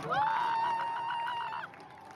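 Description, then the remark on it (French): A loud, sustained, high-pitched cry rings out over a noisy evening street protest crowd in Iran for over a second, then cuts off, leaving the outdoor crowd murmur behind. “Au son des cris et des klaxons, le mouvement de contestation propagé dans plusieurs villes ne faiblit pas”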